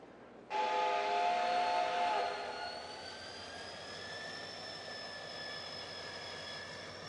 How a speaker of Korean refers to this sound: 이미 기차문은 닫혔고 기적이 울렸다.